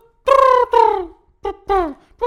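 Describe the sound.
A human voice mimics pigeon cooing: five loud, breathy hooting calls in quick succession, each with sliding pitch, and the last one rising to a high note.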